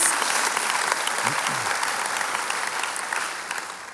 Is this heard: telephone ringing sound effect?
no